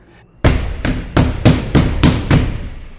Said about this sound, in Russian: Снаружи в дверь он грянул как будто сразу тремя кулаками. Взвизгнули в комнате три голоса, а дух действительно был полон силы. Он забарабанил так, что у спиритов волосы встали дыбом.